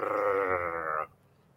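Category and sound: vocal imitation, voice imitating a growl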